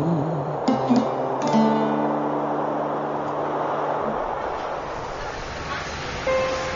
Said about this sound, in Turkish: Burası Esenler Otogar